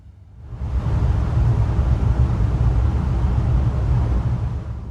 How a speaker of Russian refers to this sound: Просто представьте, где-то в подземелье Мордора молотят огромный двигатель, наполняя мерным рокотом внутреннее пространство капитанского мостика.